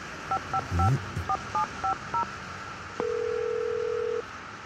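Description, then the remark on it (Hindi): A quick run of about seven short, evenly spaced telephone keypad beeps as someone dials a phone to call Kumar, then a steady single tone holds for just over a second. No one speaks. “okay BRB Kumar को call करता हूँ”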